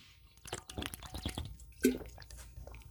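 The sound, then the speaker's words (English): Someone takes a quick sip of water: soft wet mouth clicks and a gulping swallow in otherwise quiet surroundings, with no talking. “I had to get some water real quick.”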